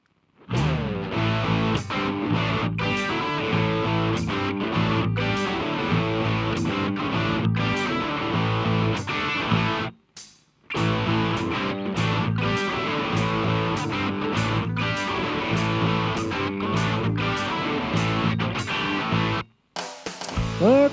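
Intro music plays alone: a dense, driving track with a steady beat and sustained harmonic layers, briefly cutting out twice before surging back in at full volume.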